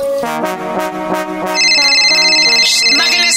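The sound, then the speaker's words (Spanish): Upbeat music plays steadily, and partway through a shrill, electronic phone ringtone joins in over it, sustained and fairly loud until the end. “Está sonando el teléfono.”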